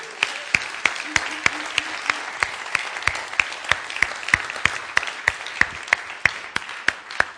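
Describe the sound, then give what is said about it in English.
A church audience applauds its senior pastor in a morning service, a dense wash of many hands clapping with sharp, evenly spaced claps standing out in a regular rhythm throughout, with no talking. “Can we, can we clap for our senior pastor this morning?”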